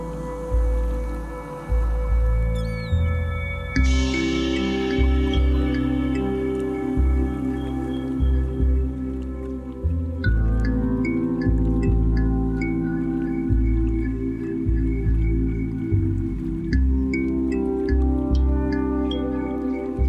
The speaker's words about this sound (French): C'est le chant du transbordeur.